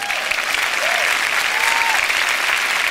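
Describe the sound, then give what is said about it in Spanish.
An audience applauds the Lord loudly and steadily, a dense wash of many hands clapping throughout with no break, plus a few faint tonal swoops rising and falling underneath. “Del otro fuerte aplauso al Señor.”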